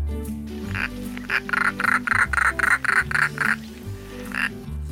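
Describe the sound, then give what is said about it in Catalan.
A European roller (Coracias garrulus) gives a quick run of about ten harsh, rasping calls, loud, then one more after a brief pause, with soft music playing underneath. “Nom científic. Coracias garrulus.”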